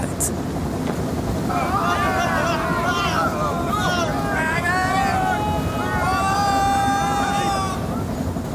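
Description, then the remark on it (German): A steamship's hull creaks and groans as the ship slowly turns in ice with its steam engine at full power, in long, wavering, squealing strains over a steady rumbling, wind-like roar, with repeated drawn-out creaks lasting several seconds, fairly loud. “Langsam dreht sich das Schiff, knarzt furchtbar und richtet seinen Bug Richtung Freiheit.”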